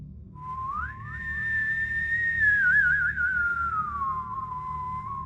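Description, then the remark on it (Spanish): A person whistles a single clear phrase, sliding up, wavering with a warble at the top, then gliding back down, alone over a low, steady background rumble. “¿Y cómo te silbaba, mi amor? ¿Así?”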